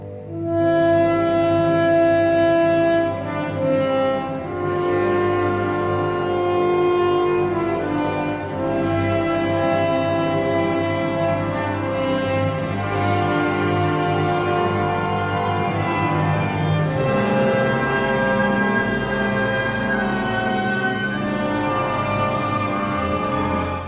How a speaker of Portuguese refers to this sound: Vamos voltar agora a uma sonoridade de um coral religioso que o naipe de trombones nos proporciona no quarto movimento da Sinfonia número 1 do alemão Johannes Brahms.